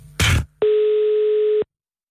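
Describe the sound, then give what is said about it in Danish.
A short noisy click is followed by one steady, mid-pitched telephone ringing tone lasting about a second, heard clearly and alone as on an outgoing call. “Sissel, ringer du lige til Adrian?”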